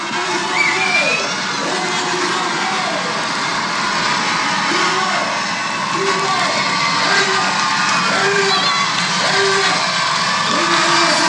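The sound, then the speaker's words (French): A loud, sustained roar of a stadium crowd cheering as American runner Courtney Welter, fourth overall, enters the stadium at the race finish, dense and continuous throughout, with scattered shouts and whoops rising above the steady wall of noise. “Écoutez l'ambiance.”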